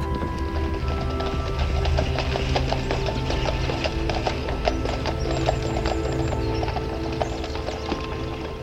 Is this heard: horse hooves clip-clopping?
yes